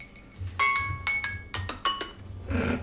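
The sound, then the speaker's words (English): A new phone's alarm rings out a bright, bell-like electronic melody of several quick chiming notes in a repeating pattern, clear over a low background hum. “the alarm sound on the alarm. It never but... has. It never has before. This is a new phone”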